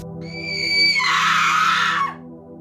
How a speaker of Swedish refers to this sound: När en kvinna böjer sig ner, med kort krulligt hår kommer jag ihåg att hon har. Lite brunlila nästan. Och skriker mig i örat